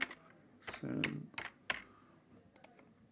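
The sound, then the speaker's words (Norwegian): Crisp clicks of someone typing on a computer keyboard, entering two words shown as images on screen to pass a verification check, in short irregular bursts of keystrokes with small pauses between, and a brief low murmur partway through. “Så da taster jeg inn disse to ordene.”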